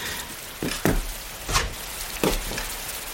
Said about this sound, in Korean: 에이, 그 무슨 눈에 비가 이렇게 거세게 내리는 거야?